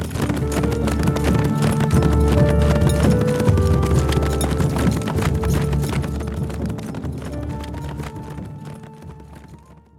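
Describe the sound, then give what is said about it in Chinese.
Horse hooves clip-clop in a steady, rapid rhythm over a bed of sustained musical tones as Mr. Bell rides his horse away from the tent, the sound gradually fading toward the end. “贝尔先生骑马离开后，小狗真克独自在帐篷周围打转儿。”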